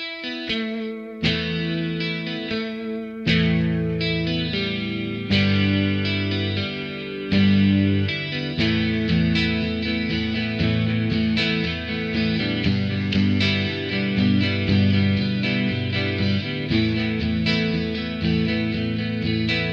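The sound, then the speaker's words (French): A lone lead electric guitar, isolated from the song, plays on its own in a special tuning that lets many open strings ring, heavily processed with distortion and chorus-like effects, ringing chords and sustained notes layered into a thick, shimmering wash with sharp picked attacks throughout. “Je vais vous faire écouter la guitare principale isolée.”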